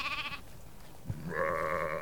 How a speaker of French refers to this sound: Non mais ils vont rentrer dans le bureau. Qu'est-ce que c'est Mais c'est des moutons C'est des moutons, c'est rien ça Oui mais enfin, ils, font un boucan pas possible, j'arrive pas à me concentrer là, sur mon tableau Excel.